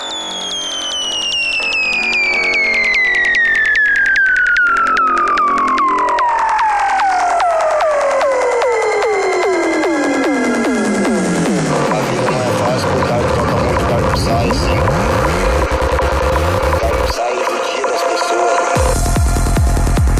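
Dark psytrance electronic music: a loud, steadily falling synth sweep over dense, gritty textures, moving into fast pulsing rhythms, with the bass briefly cutting out before returning.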